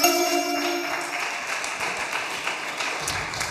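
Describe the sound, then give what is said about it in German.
A few seconds of steady applause for a top answer in a quiz, a dense, even patter of many hands clapping. A brief tonal chime rings underneath at the start, and no one speaks. “Applaus.”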